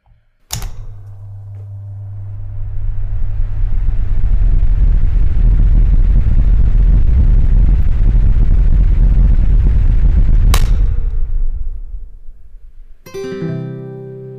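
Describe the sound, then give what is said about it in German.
A switch clicks and electric fans whir up into a loud, steady rush of air over a low motor hum, then click off and wind down before a brief humming tone. “Dieser Podcast wird Ihnen präsentiert von Ventilatoren.”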